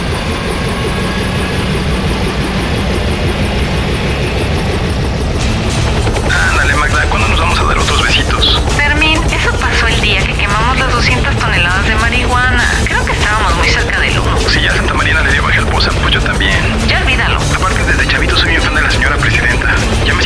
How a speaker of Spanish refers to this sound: Ya, súbete al helicóptero, se nos hace tarde.